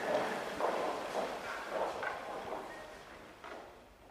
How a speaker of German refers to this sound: Und ja, das sind nicht nur äh, hört man hier nicht nur hinter der Kulisse Anweisungen für den Auftritt, sondern auch sehr schöne Maschinengeräusche eines Opernhauses.